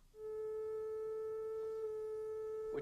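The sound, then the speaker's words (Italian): A steady, pure electronic tone from a signal generator, set to the resonant frequency of a drinking glass (over 400 vibrations per second) and played through an amplifier, holds at one pitch with faint harmonics above it, continuous and unwavering for nearly three seconds before a brief noise at the end. “Poi regoliamo un generatore su questa frequenza”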